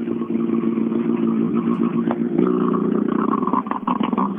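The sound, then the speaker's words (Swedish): A racing car engine revs hard and steadily for several seconds at the start of a timed stage, a loud, raspy mechanical roar with strong harmonics, its pitch climbing briefly around the midpoint as the throttle opens further. “Vi har 45 på sekund här nu så vi, ska vi höra starten.”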